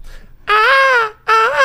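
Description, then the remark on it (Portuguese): A person imitates an eagle's cry with two loud, shrill, sustained screeches, the second cut short, with no other talking. “Não, vou fazer a águia normal mesmo.”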